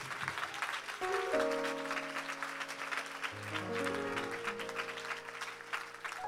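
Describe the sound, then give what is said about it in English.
An audience claps their hands unto the Lord in a steady, dense wash of applause, while sustained organ or keyboard chords play underneath, shifting pitch partway through. “one more time, could we clap our hands unto the Lord?”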